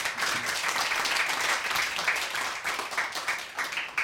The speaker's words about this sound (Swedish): Kan vi få en applåd för henne?